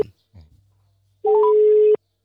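A single steady ringback tone from an outgoing phone call to a VBW district manager about water pressure, a loud, even hum lasting under a second after a few faint, brief sounds and a quiet pause.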